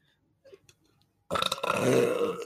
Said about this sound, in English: that's why you had the secret second command. To make you burp?